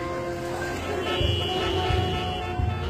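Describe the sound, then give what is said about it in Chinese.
Busy afternoon city traffic with buses and metro hums in a steady, dense din, with sustained car horn tones sounding over it and a few low rumbling pulses from passing vehicles. “经过混乱喧嚣的公交地铁，”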